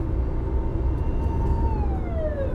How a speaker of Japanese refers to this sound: 昨日の収録の時も救急車とすれ違ったんですよねなんか俺が収録してるとこう緊急車両とすれ違うパターンが多いかな